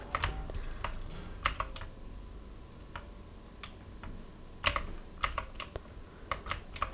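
Sharp, clicky keystrokes on a Razer BlackWidow Elite mechanical keyboard with green switches tap in irregular bursts, some in quick clusters, fairly loud over a low background hum, during computer gaming, with no one speaking.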